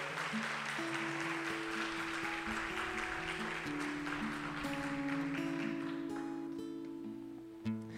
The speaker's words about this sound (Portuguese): Dá uma salva de palmas aí ao nosso Deus.